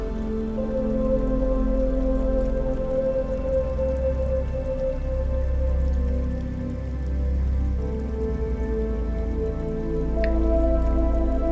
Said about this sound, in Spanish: Te sientes más y más en sintonía con los sonidos del bosque